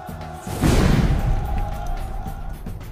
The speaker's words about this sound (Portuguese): E quando dá-se essa explosão, Todo mundo se afasta, se olha